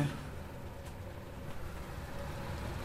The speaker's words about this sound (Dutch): Oh, het regent enorm.